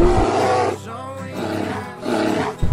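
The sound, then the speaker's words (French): A bear roars loudly in a few rough, growling bursts that swell and fade over about three seconds, with no voices present. “il y a des grizzlies, hein, des ours qui sont là, peut-être des ours noirs”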